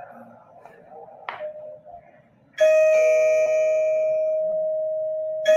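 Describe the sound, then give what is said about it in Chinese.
The intercom doorbell chime of a home security and intercom system rings out suddenly after a quiet stretch with faint murmuring, one bright tone that holds steadily and loudly for several seconds; the caller's camera image shows on a large display screen and on a mobile phone. “按门铃的时候，除了大大的显示幕可以显示以外，手机其实也可以看到同样的画面。”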